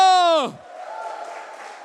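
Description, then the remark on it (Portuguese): A loud, drawn-out shout glides downward in pitch, then gives way to a steady wash of audience cheering and clapping in praise of God, a shout of joy, carrying on at a moderate level to the end. “E se você crê isso para você, aplauda Ele bem alto e dê um brado de júbilo.”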